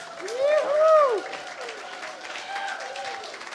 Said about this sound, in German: Und ich sage jetzt einfach mal, gib Jesus einmal einen Applaus. Jauchze und juble einmal, versuch's einmal.